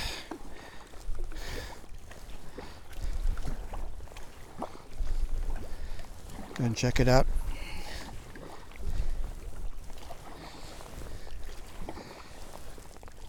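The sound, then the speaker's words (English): A canoe being paddled up Loch Harport near Carbost, with a little light rain in the air, steady low splashing strokes every couple of seconds over constant wind rumble; a voice briefly speaks partway through. “I've always wanted to paddle up this lock, Loch Harport”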